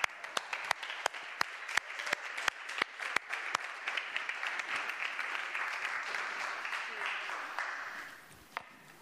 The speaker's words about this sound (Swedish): ge en stor applåd